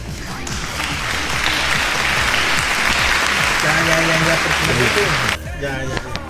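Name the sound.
applause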